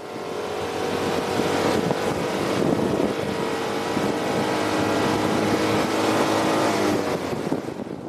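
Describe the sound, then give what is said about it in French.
A racing car engine accelerating as the driver floors the accelerator when the starting flag drops: a loud, continuous roar thick with rumble and a buzzing whine that climbs slightly in pitch as it revs, with no voices. “Le drapeau s'abaisse et Bruno écrase l'accélérateur.”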